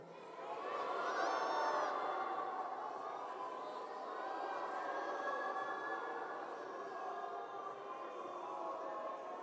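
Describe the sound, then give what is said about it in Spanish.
A large crowd at a Christian worship service shouts and cheers together for the name of Jesus in a sustained roar, voices blending into a dense wash of noise with a few higher whoops rising above it, steady throughout. “¿No sería como para gritar su nombre?”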